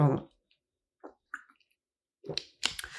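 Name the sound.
person drinking water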